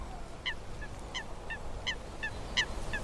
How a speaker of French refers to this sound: C'est un foulque qui chante.